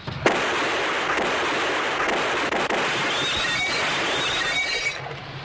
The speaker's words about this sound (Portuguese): Aí ela olha pra pistola, dá uns 4, 5 tiros na, na louça, fala assim: pronto, terminado.